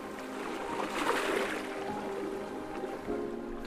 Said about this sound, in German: Dort, wo sich die Küstenlinie in der Ferne verliert, beginnt die scheinbare Unendlichkeit der Ostsee. Sanfte Wellen sind auf dem Wasser. Ihre Bewegung lässt die Sonne immer mal wieder im Wasser glitzern.